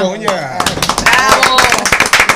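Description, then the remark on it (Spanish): An audience breaks into lively applause, dense rapid clapping that swells and holds steady, with voices audible briefly at the start and mingling with the claps. “Y, manténganse aplaudiendo por lo que viene ahora.”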